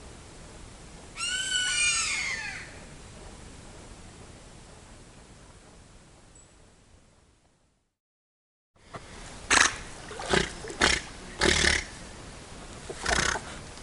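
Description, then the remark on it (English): A giant otter about 10 feet away calls: a quick burst of squealing, wavering cries, then after a short silence about five loud, harsh grunts in an uneven series over a steady background hiss. “That grunting sound is the sound of a giant otter.”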